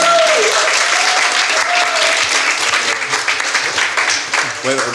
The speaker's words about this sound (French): C'est pour ça qu'on aime Nancy. On l'applaudit.